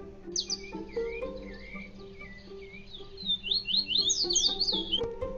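Bird squawks and chirps ring out in quick bursts, with high sweeping calls that grow busier and louder toward the end, layered over a soft sustained musical backing.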